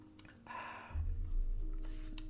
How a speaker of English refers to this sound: In all honesty, and excuse me while I just grab a little sip of water here.